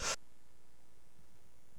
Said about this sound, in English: Excuse me, I'm coughing here.